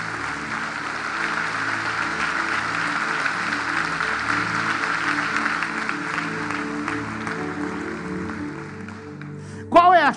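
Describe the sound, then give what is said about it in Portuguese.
An audience applauds the Lord steadily for about nine seconds, a dense wash of clapping over a low sustained musical drone, ending with a brief loud rising tone. “Será que você pode dar um aplauso ao Senhor neste dia de hoje?”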